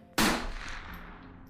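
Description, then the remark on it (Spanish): A single sharp gunshot cracks out loudly near the Quinta Vergara in Viña del Mar, Chile, during a festival, followed by a long fading echo that rolls away over about a second. “Muy cerca de la Quinta Vergara, el lugar donde se estaba llevando a cabo este festival, varios testigos escucharon un disparo.”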